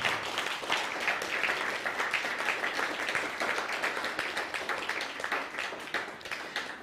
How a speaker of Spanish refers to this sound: Damos un aplauso a eso, porque el Eterno es bueno.